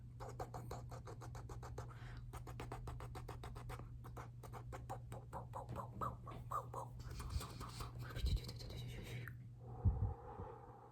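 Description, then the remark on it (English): Rapid brushing strokes of a large makeup brush blending blush swish in quick repeated bursts, a soft bristly scratching that speeds up and blurs together, with a steady low hum underneath and no talking. “I, I need to blend your blush with a bigger brush.”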